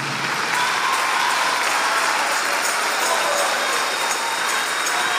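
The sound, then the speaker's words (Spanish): A church audience applauds for God steadily for several seconds, a dense, even wash of clapping hands with no pauses and no voices rising above it. “el aplauso para Dios, dáselo.”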